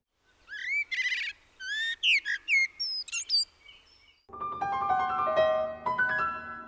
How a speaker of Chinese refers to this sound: 哎，那这个呢？这个呢？ 这个是知更鸟，